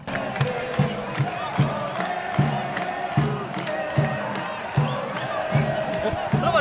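A large stadium football crowd roars and chants continuously after Guarani scores the opening goal, with steady rhythmic thumps, like drums or stomping, pulsing under the dense, sustained noise of the fans.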